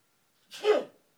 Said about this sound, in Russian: Амен. Правда, говорят русские. А когда чихают немцы, двойная правда. Gesund hei, mein Bruder, alles in Ordnung.